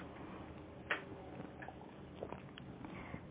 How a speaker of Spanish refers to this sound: Así que voy a aprovechar y me tomo un segundo sorbito de café, estirándolo y ahorrándolo, para entonces pasar al segundo tema de este viernes.